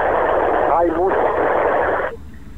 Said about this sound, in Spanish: Y bueno, y lo que estamos viendo es que eh, siguen acá, obviamente, charlando todos acá como para ver se puede. bueno, mucha, se escucha mucha gente, no sé cómo será el escenario ahí.